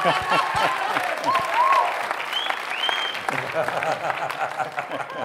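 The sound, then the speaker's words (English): An audience claps steadily throughout for a man brought up before them, a dense, even patter of many hands, with a few brief whistles rising above the applause. “we'll give him a clap.”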